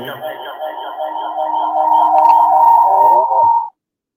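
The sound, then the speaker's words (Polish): A voice drenched in delay and reverb effects, its sustained tones smearing into a washy, echoing tail before cutting off abruptly; fairly loud, with no clear words. “Najnowsze technologie jamańskie, drodzy Państwo, wkradły się, czyli delaye, kamery pogłosowe.”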